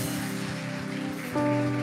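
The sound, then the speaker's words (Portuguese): A crowd at a worship service applauds in praise of Jesus in a dense, steady wash of clapping, with sustained musical chords underneath that grow louder toward the end. “Levante um aplauso, querido, para esse Jesus que te prospera.”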